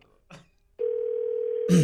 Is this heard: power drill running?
no